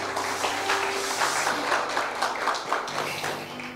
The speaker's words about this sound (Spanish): Dele un fuerte aplauso al Señor Jesús.